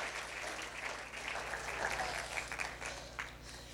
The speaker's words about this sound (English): Brilliant. Let's give you a clap. Well done.